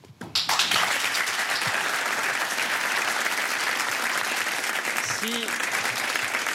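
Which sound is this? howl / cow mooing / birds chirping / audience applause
audience applause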